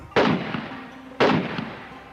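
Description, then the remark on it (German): Two sharp gunshots about a second apart, fired in the early morning at a travelers' lodge on the Natchez Trace in 1809, each a loud crack with a rumbling echo that fades, and no one speaks. “In den frühen Morgenstunden des 11. Oktober hört Priscilla Grinder Schüsse.”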